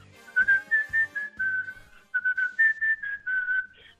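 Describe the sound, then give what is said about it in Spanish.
A person whistles the closing song of a cartoon series, a short, bright melody in a series of clear sustained notes and quick phrases, fairly loud, with no talking. “Sale tu silbido y ya no hay nada que temer.”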